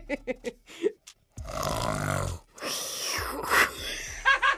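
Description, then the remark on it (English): A person in a studio does a rough, raspy imitation of a lion's roar, long and growling, broken by snorting bursts, with a few short vocal sounds and giggles around it. “a very sick lion in the studio.”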